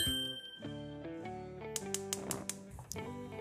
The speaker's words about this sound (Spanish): Acabo de poner la tetera al fuego. Me voy a tomar una tacita de manzanilla antes de empezar